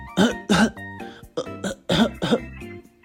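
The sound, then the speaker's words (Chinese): In a children's story, a voice acts out a run of coughs for a character who has a cold and a swollen throat: several loud, voiced bursts in an uneven rhythm, some paired, with short gaps between them and no spoken words. “喉咙肿起来，一直在咳嗽，我都没办法说话了。”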